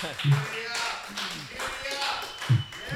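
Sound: people clapping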